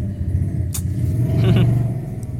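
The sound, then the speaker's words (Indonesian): A motorcycle roars past, its low engine rumble swelling to a peak and then easing off as it moves away, with no one speaking. “motor lewat gandeng pisan”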